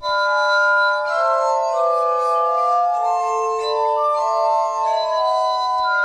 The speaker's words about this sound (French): Pat m'a envoyé d'autres trucs joués sur harmonica de verre